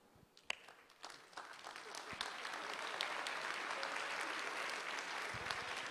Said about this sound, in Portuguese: Aplauda o Senhor.